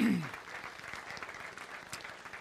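An audience claps steadily throughout, a dense patter of many hands at moderate volume, sustained without a break.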